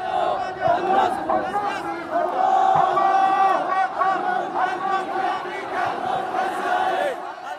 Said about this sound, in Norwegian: Dette er saker Ansar Allah nekter for, men etter fredagsbønner runger dere berykta, stolte slagord ut av de utallige megafonhøgtalerne som er satt opp.